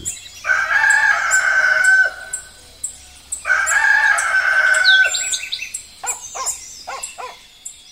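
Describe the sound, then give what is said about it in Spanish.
A rooster crows twice at dawn, each call long and loud, with a short pause between them, followed by a scatter of quick bird chirps and clucks. “Ya las montañas se recortan sobre el cielo azul y el canto del gallo anuncia el primer rayo de sol.”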